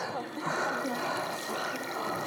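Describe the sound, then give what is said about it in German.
Hot water from an electric kettle pours steadily into a cup or bowl to make instant packet soup, a continuous gurgling splash lasting a couple of seconds, with a faint murmur of background noise. “Also wir machen heute hier Suppe. Feuerwehrsuppe mit einem Wasserkocher.”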